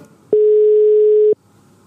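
A telephone dial tone as the radio program Schipjournaal calls Paul Reichenbach: one steady, mid-pitched electronic beep lasting about a second, loud and even, starting and stopping abruptly over a quiet background with no talking.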